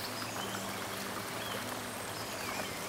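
flowing stream water

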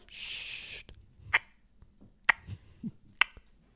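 horse hooves clip-clopping

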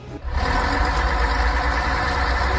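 bus engine idling

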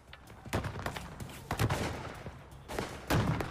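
exchange of gunfire

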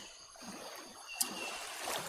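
ocean waves

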